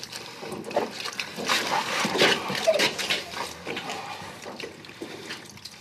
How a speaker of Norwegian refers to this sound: Du hører lyden av det som mange kaller tortur. En journalist lar seg utsette for det som kalles waterboarding. Ofrene for waterboarding føler at de er i ferd med å drukne.